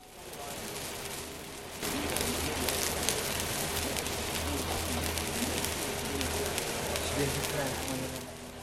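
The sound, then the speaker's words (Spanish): Pancakes fry in plenty of oil on a long, wide metal griddle in a kitchen as an elderly woman of about 80 keeps turning them, a dense, steady crackling sizzle that grows louder after the first couple of seconds, with a low hum underneath. “Mientras crepita el aceite, la anciana no se cansa de remover los panqueques, que quedan dorados y crujientes.”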